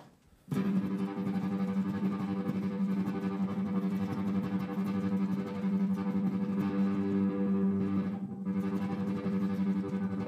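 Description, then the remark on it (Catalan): A heavily distorted electric guitar tone from a guitar effects pedal, its helicopter effect and distortion turned all the way up, sustains loud and dense, with a fluttering, chopping modulation throughout and a brief dip near the end, no voices. “jo el que m'agrada molt és l'efecte helicòpter d'aquest, tot passat de voltes, tot a tope, i no sé, alguna distor, com per exemple aquesta.”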